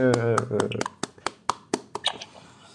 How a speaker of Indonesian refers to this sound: Iya, tepuk tangan dulu.